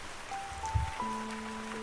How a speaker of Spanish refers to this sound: Lluvia, lluvia.